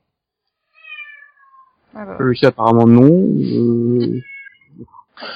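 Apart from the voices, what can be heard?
cat meowing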